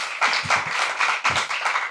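A burst of audience applause for a comedian, dense overlapping claps at steady volume for a couple of seconds, with no voices over it.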